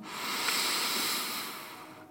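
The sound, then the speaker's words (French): A strong, steady inhalation drawn in through the nose as part of a breathing exercise, an airy hiss that swells and holds for about two seconds before easing off, with no voices. “Tu vas commencer à inspirer par le nez un peu plus fort.”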